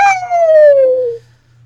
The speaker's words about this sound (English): I'd like, I'd like, instead of a, ho- a ho- horse's neighing, I'd like a coyote howl.